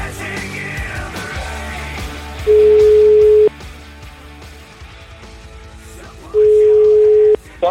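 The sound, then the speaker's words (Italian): An outgoing telephone call to a bus driver rings twice, each a loud, steady one-second beep separated by a few seconds of pause, over a low murmur of background noise. “credo il primo pullman di questa carovana di pullman, io lo chiamerei, vai.”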